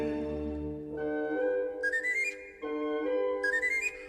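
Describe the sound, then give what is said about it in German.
A bright, breathy bird-catcher's pipe plays two quick rising runs of notes, the second repeating the first, over a sustained orchestral accompaniment. No one speaks. “Weiß mit dem Locken umzugehen und mich aufs Pfeifen zu verstehen”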